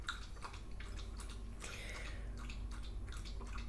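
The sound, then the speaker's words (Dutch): A small dog laps drinking water in quick, steady wet slurps, several per second, fairly loud with no one talking. “Mijn hondje begint nu water te, drinken. Dat hoor je waarschijnlijk heel goed.”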